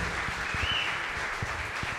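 A crowd applauds steadily, a dense wash of many hands clapping at once with a few sharper individual claps standing out, sustained at an even, moderate level throughout.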